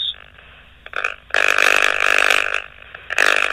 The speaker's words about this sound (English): Yeah, my luck, one will stop, and then the next neighbor will start cutting his grass.